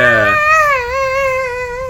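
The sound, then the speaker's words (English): A voice imitates the synthetic, keyboard-sound-effect-like scream from a film with no dialogue. A short lower burst jumps to a loud, steady, sung "ah" held for about a second and a half, wavering slightly in pitch. “It's almost like a a keyboard sound effect mm-hmm. for the scream. It's like it's singing like.”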